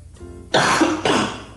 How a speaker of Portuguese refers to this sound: Caraca, desculpa, pessoal, tá dando uma crise de tosse aqui doido